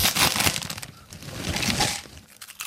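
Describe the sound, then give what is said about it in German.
Loud, crisp crunching of potato chips being chewed, a dense run of sharp brittle cracks that swells, dips briefly, then surges again before trailing off. No talking. “Erst ist es dieses Geräusch und dann ist es der Geschmack auf der Zunge.”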